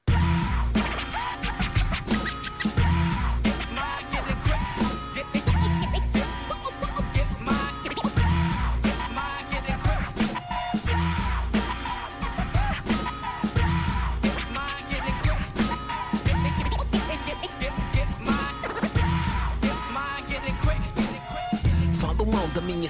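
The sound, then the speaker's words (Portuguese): A rap song with lyrics in Portuguese and English plays loud and continuous, driven by a heavy bass beat and crisp, steady percussion hits with scratchy accents running throughout. “é a minha forma, a minha arma que eu tenho de luta, para além da, do ativismo que eu faço dentro das comunidades, é o rap, então decidi fazer essa música.”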